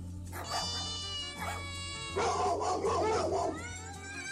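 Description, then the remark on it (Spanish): A dog barks in drawn-out, whining yelps, rising into a louder, rougher stretch midway before easing off. No one talks. “Mira ese perro.”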